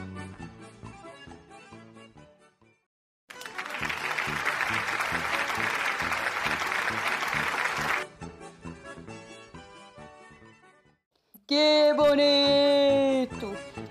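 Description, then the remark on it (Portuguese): A loud, steady burst of audience applause at a festa junina, welcoming a staged wedding play by author Ivone Alves Sor, lasts about five seconds, set between stretches of music, with a singing voice entering shortly afterward. “Salve de palmas, gente!”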